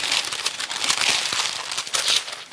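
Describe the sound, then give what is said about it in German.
Steady crinkling and rustling of a pink-wrapped gift with a red ribbon being torn open, a dense hiss of crackly paper with brief louder crunches throughout, and no talking. “Komm, ich mache mal hier den Pinky auf.”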